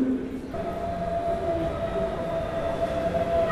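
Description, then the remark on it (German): A train rumbles steadily at a station platform at track 1, with a sustained tonal hum or squeal running through the low, constant noise of rail traffic. “Und jetzt Warngeräusche. Achtung, Gleis 1.”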